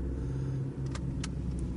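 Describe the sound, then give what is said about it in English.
A car drives and turns sharply to the right: a steady low engine drone with a constant hum, broken by a few brief hissing bursts of road or tire noise. No one speaks. “Again, I have the helium balloon in front of me, and we're going to drive and turn a sharp right and see what happens.”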